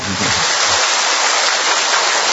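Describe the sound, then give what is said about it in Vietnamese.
An audience applauds in a steady, dense wash of clapping that stays loud and even for a couple of seconds, with a brief low murmur of voices at the very start. “Một tràng pháo tay nữa thật to thưa anh chị em.”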